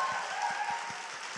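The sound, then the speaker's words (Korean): A crowd applauds steadily, many hands clapping in a dense, continuous patter with a few sharper individual claps standing out at a quick, regular rhythm. No one speaks over it. “다시 한번 박수 한번 주세요.”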